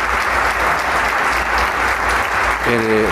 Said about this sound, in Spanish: Y con este aplauso iniciamos la segunda parte del concierto de Camerata de Coahuila.